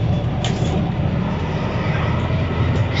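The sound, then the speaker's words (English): Steady low-pitched engine rumble and road noise from inside a moving bus heading into town, a continuous droning hum with faint rattles and brief hissy bursts, no voices. “And we are on a bus right now, and the bus is going to town as we're going to.”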